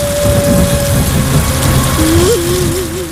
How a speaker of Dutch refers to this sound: Het ene moment heb je een prachtig uitzicht het volgende kun je door de mist nog geen 50 meter kijken. Of giet het bij een wolkbreuk van de regen.